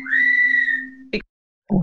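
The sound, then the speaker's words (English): A pet bird gives a loud, sustained whistle lasting about a second, then makes a short sharp burst of sound, a brief pause, and another rougher note. “likes your breasts too because she's whistling at them.”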